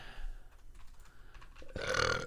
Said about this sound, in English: Uh, uh, excuse me. I just realized I burped in the mic twice. I'm so sorry.